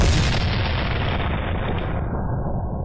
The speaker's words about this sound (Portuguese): e vocês estão sendo atacados por canhões.